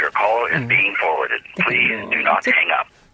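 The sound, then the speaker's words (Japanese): A recorded English voice message saying "Please do not hang up" plays through a satellite phone line while calling Shinbo, tinny and band-limited, speaking in two short phrases with a brief pause between, like an automated hold announcement. “いつもなんかここで呼び出し音がなっていてあなんかつながる雰囲気が出てくるけれど、はい、時々ね、はい、あの英語の音声でこれですよあなるほどこれじゃあもうコネクト中だと。”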